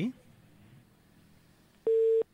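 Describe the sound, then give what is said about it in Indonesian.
An incoming phone call cuts off: after a brief fragment of voice and a quiet pause, a single loud, steady busy-tone beep sounds for a moment near the end. “terputus ya.”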